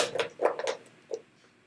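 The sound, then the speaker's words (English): A plastic water bottle is handled, giving a quick cluster of sharp crinkly ticks and clicks, then one softer click after a short pause. Fairly quiet, with no voices. “No, that's a, that's a plastic water bottle.”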